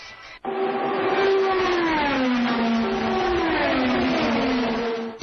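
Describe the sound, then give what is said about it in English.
A race car engine roars loudly and steadily for about five seconds, its high whining pitch sliding gradually lower as it revs, with no voices. “Off of turn number four, two drivers run door to door, beating and banging, racing to get to the checkered flag.”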